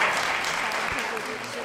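A crowd applauds steadily as guests are welcomed, a dense wash of many hands clapping at once, fairly loud and continuous throughout with no pause.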